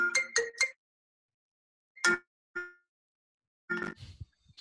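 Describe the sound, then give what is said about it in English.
A phone's electronic ringtone from an incoming call, coming through a computer the phone is hooked up to, plays a quick three-note melodic phrase, then a few separated chiming tones after short gaps, clear and alone with no voices. “It's my phone. It's hooked up to the computer, so it, it, whenever someone calls me, it goes straight through.”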